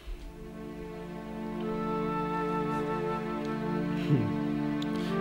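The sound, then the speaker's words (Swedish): A slow passage of orchestral film music: sustained string-like chords held at a steady, moderate level, with a brief low swell partway through and no voices. “sen kommer ju eh, spåret ehm, The Severnaya Suite”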